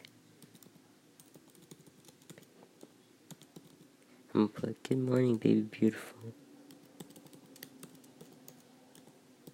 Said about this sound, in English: I'm typing with one hand.